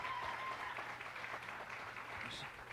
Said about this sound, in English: Give my wife a big round of applause, boy.